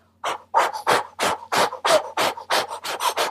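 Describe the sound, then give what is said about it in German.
A person does a breathing exercise, breathing rapidly in and out through an O-shaped mouth. About eleven loud, airy huffs come in a quick, steady rhythm, with no talking. “Und dazu macht man eine Atmung ähm, durch den, also der Mund ist so O-förmig geformt und macht eine Ausat Ein- und Ausatmung durch den Mund.”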